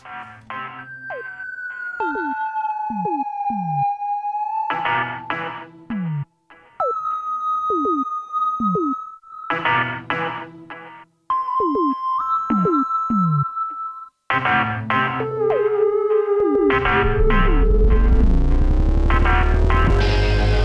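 A pop song plays with no vocals audible, bright synth tones over a steady beat, building to a dense, loud swell near the end.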